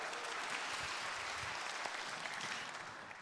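An audience claps steadily, a dense, continuous patter of many hands at an even loudness, tapering slightly toward the end. No one speaks over it.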